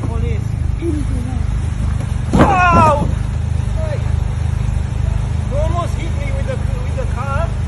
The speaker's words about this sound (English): A video has emerged of a car being driven into a cyclist following an argument in Tunbridge Wells.